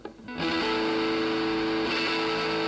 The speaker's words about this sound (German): Endlich Musik.